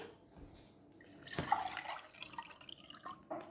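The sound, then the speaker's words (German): Water is poured out and drips, a brief splashing burst in the middle followed by scattered trickles and small drips, fairly quiet with no voices. “Jetzt wird hier gerade Wasser verteilt.”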